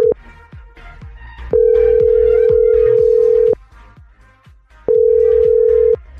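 A phone call to a man's wife rings out: a steady electronic ringback tone sounds in two long bursts with a pause between, over a steady thumping music beat. No one speaks.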